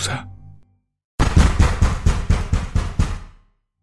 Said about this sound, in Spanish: Alguien tocaba el cristal de la puerta. Por el ruido de los refrigeradores apenas y logré escuchar.